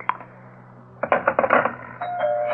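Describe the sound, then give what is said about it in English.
A doorbell rings: one sharp ding, then a quick burst of rattling metallic strikes, settling into a steady, sustained ringing tone at the end. No voices are heard. “Henrietta, get the door, will you please?”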